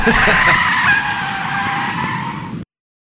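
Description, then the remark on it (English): A loud, sustained screech of car brakes and skidding tires, a harsh high-pitched squeal lasting over two seconds before cutting off abruptly into silence. “let me show you how this is, this is done here on the Big House Bleachers podcast. Matt, pump the brakes.”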